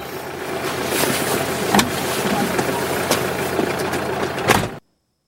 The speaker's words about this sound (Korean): 그리고 어, 뭔가 이게 자동차 소리, 시동 소리가 들렸던 것 같고요. 힌트를 드리자면 요게 영화 봄날은 간다에 나오는 장면이었고요.